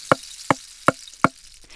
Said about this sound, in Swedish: Då knackade det.